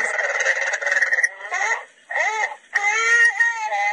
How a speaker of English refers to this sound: The tortured grunts suddenly stop. There is silence.